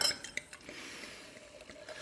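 Wine poured into a glass to fill it fuller: a soft, steady splashing trickle lasting about two seconds, with a few faint clinks of glass, quiet, with no one talking.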